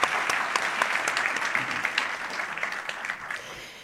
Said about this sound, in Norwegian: Ja, vi kan klappe litt for Siv Jensen nå.